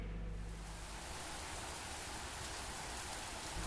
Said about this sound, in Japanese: ああ今、料理の音です。はい。料理の音です。どんな料理を今しましたか